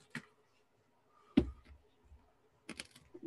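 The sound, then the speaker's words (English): A handful of short, dry crunching crackles of a spider being crushed come in separate bursts with quiet pauses between, fairly soft, with no talking. “Could you hear that crunch?”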